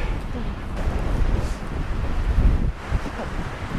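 Steady, buffeting wind roars across the microphone outdoors during birdwatching in Finland, a dense low rumble with gusty swells throughout, loud, with no clear speech.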